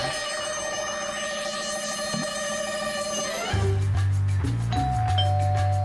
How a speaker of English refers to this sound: Someone just rang at my doorbell.